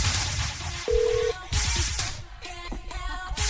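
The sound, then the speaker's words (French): Telephone dialing tones as a call is placed: a short, clear electronic beep stands out midway, followed by fainter keypad-like blips, all over a steady hiss of background noise with no talking. “On va aller au téléphone, on va aller euh, gâter quelqu'un.”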